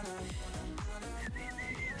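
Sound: attempted whistling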